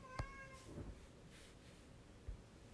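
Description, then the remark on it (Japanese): A cat named Lupin meows briefly, a short tonal cry near the start, followed by faint shuffling and a soft thump in otherwise quiet surroundings. “ルパンがうるさいね。”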